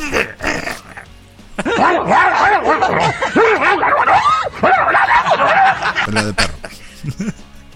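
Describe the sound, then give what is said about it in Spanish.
Dogs bark and yelp in rapid, overlapping bursts that fill several seconds, fairly loud, with a voice mixed in underneath. “Es que están los perros, así como Jorge Falcón.”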